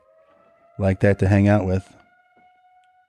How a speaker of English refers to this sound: Uh, if you hear it, there's there's a siren in the background. That's that.